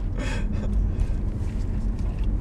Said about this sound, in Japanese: 今日はですね僕の車でねあそうえっとドライブの録音が結構いいんじゃないかっていうことで